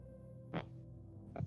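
A muffled phone notification sounds from under a seat as two short blips about a second apart, dull, over a steady low hum, with no voices.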